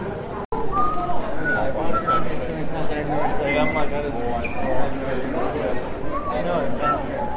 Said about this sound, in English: The archways, the nooks and crannies filled with people. It's 10:43 p.m. on a Thursday evening and streets are alive. And it's not just tourists, it's locals and families and kids and grandmas and papas, and it's just magical.